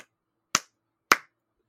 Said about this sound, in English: and I'm going to warn you about this, it's going to be a little bit loud. um, I clap three times loudly. I just go,